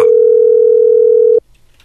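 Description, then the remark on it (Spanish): A loud, steady telephone line tone on a call to the radio station Radio Poder holds one even pitch for about a second and a half, then cuts off abruptly into near silence. No one speaks. “A ver, ahí está la llamada.”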